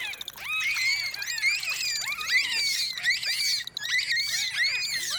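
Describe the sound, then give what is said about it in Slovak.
Bottlenose dolphins chattering: a dense, overlapping stream of high, squealing whistles that sweep up and down in pitch, steady and lively for the whole stretch, with no voices. “Celú uštipačnú diskusiu delfínov skákavých o farbe vašich plaviek si môžete vypočuť na svojej exotickej dovolenke.”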